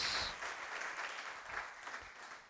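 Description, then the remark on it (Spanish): An audience applauding God steadily, a dense wash of many hands clapping at a fairly even loudness throughout, with no voices standing out. “¿Qué tal si le damos un fuerte aplauso a nuestro Dios?”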